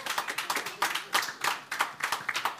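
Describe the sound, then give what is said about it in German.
Thin, scattered clapping from a few people in a quick applause poll for those who say the Dolphins will win, uneven and half-hearted, with short bursts of claps that never swell into full applause. Fairly quiet, with no talking. “Das war ein Mitleidsklatschen, glaube ich.”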